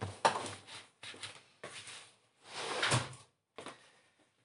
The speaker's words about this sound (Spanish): en este momento tengo la ventana abierta, así que creo que la voy a ir a cerrar para que no se escuche tanto desmadre de afuera. Un momento.